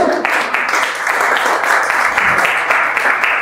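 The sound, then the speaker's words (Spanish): Sustained applause as the men are asked to applaud the women, a dense steady wash of many hands clapping at an even loudness throughout, with no clear voices over it. “Hombres, denles un aplauso a las mujeres, por favor.”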